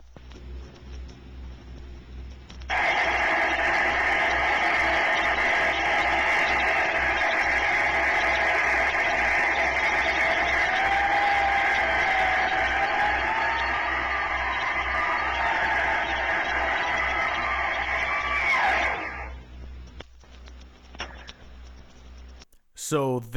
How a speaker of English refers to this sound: that is the sound of a Turbonique rocket drag axle, effectively what that unit was, operating on what the narrator describes as a prony brake dyno or a dynamometer.